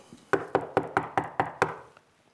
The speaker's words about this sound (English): He says, Behold, he said, I'm, I'm standing at the door and knocking.